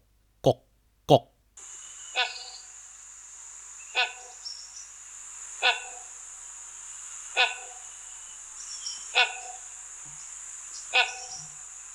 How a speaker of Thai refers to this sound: ชื่อบางที่เขาก็เรียกตามเสียงร้องยกตัวอย่างเช่น นกกกนะครับนกกกหรือนกกาหัง เป็นนกเงือกขนาดใหญ่ที่สุดของประเทศไทย มันก็จะร้องอยู่ในป่าเสียงก็จะดังกก